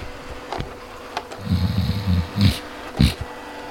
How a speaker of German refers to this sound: Verdammt, Staubsaugerprogramm.